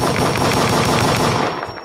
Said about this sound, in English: busting off gunshots. Yo, I'm just like, you know. I'm busting off some gunshots, bro.